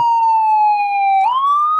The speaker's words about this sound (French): Pourquoi y a l'ambulance